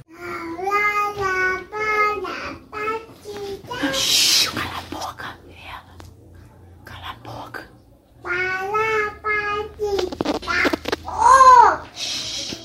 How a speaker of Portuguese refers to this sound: Uma imagem que chama atenção é a de uma criança, possivelmente ainda bebê, que canta enquanto os bandidos estão subindo a comunidade.